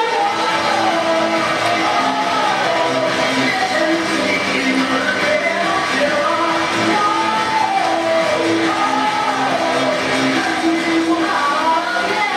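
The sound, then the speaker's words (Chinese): A large crowd roars and cheers without pause, shouts and whoops piling over dense applause-like noise for the whole stretch, loud and sustained with no single voice standing out. “同意的请掌声加高声。”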